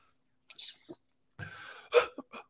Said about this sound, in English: let me clear my throat. Excuse me. Hold on.